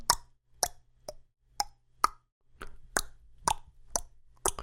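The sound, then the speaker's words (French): A series of about eleven sharp tongue clicks, produced one after another at a fairly steady, quick rhythm, with brief silences between them and no talking. “Bonjour, bienvenue sur Shuffle, le premier podcast qui te fait écouter des claquements en langue.”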